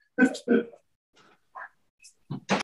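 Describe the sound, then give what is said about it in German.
A dog barks twice in quick succession, loud, then lets out short high whines and whimpers before a couple more sharp barks, sounding agitated and excited. “entschuldige, ich muss mal ganz kurz an meinem Hund gucken, ja. weil der gerade durchdreht.”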